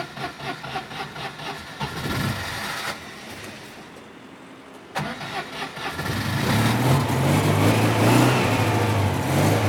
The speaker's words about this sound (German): Ob ich jetzt Glück habe mit dem ersten Startversuch nach zwei, drei Wochen, werden wir sehen. Und noch mehr werden wir es hören. Ich drehte das Gaspedal zweimal durch, dadurch kommt ein bisschen Sprit in den Vergaser.